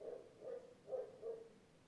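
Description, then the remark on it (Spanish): A dog barks, four muffled woofs in a quick, fairly even rhythm, faint against a quiet background with no one talking. “Yo siento el perro ladrar, lo escucho y tú lo estás escuchando conmigo.”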